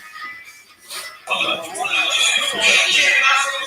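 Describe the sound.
A person imitates a horse's whinny with a loud, wavering, high-pitched voice that rises and trembles for a couple of seconds after a brief quieter moment.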